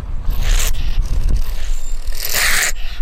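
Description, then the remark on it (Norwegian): An agitated honey badger, disturbed, gives a loud, harsh rattling growl, continuous for a few seconds, with raspy hissing bursts rising over a low, sputtering, engine-like rumble. “Vi kan høre litt hvordan den høres ut da hvis du påvirker den.”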